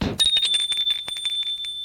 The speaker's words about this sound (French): Un soir que François était chez lui à étudier, l'on sonne à sa porte.